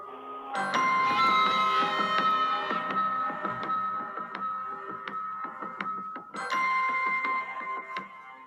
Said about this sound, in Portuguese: é a trilha de Mandalorian que é muito mais marcante do que a de Boba Fett, que ainda não pegou né?